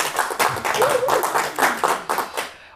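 An audience of Kölner Stadtanzeiger readers in a hall applauds with dense, steady clapping that stays loud throughout, many hands overlapping into a continuous rattle before it trails off at the end.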